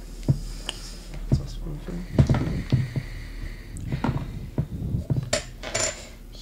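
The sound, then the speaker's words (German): Several dice clatter and tumble across a hard tabletop in overlapping bursts of sharp clicks as players all roll for perception in a game, with voices murmuring quietly underneath. “Würfelt mal alle Wahrnehmung.”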